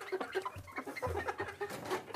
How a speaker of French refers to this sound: J'aime le son des poules